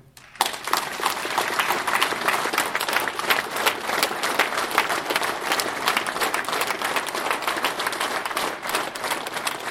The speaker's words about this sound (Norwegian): Ja, det er ingen tvil om at det er god stemning på Senterpartilandsmøtet. Nei, det Det var avslutningen og applausen etter talen til eh, Trygve Slagsvold Vedum.